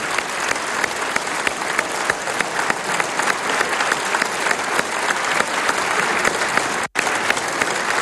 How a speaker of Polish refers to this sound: Chciałbym z tego miejsca serdecznie pozdrowić wszystkich tych, którzy dzisiaj oglądają naszą pracę tutaj w tej Izbie. Nagrodźmy ich gorącymi oklaskami.